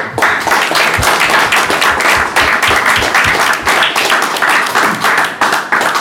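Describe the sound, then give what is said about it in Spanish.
A group of people in a studio applauds steadily for several seconds to thank guests for their presence, a dense burst of overlapping claps, with no voices over it. “Y bueno, eh, quiero que nos compañeros cerremos con un aplauso por, la presencia.”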